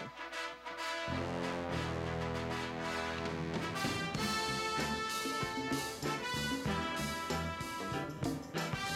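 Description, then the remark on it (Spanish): A bold orchestral film theme plays loud and continuous, with punchy drum hits and bright brass fanfares building after a brief quieter opening second. No one speaks. “Yo lo veo corriendo, subiendo a la, a la rampa esa donde termina y levanta los brazos exitosamente tiene batería, trompetas, de todo y es tan bonito.”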